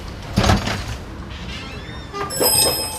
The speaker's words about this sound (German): Beim Öffnen der Ladentür scheppert die Glocke laut und eindringlich.